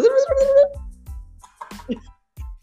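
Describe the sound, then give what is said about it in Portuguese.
A voice imitates a cassette tape rewinding: a high, warbling squeal that slides upward, then a run of short, choppy sputtering bursts, fairly loud. “Isso é o barulho de voltar na fita.”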